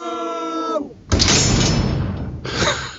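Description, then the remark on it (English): A door is closed with a loud, rough rush of scraping noise lasting over a second, then a shorter burst, following a brief tonal voice-like sound. “I'm in the hole and I've uh, you know closed the door and uh, can you hear me better now?”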